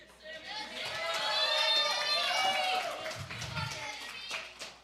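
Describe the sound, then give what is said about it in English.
A crowd applauds loudly and steadily for several seconds, with cheering and shouting voices mixed into the clapping before it begins to thin out toward the end. “How come you guys don't clap that loud for me?”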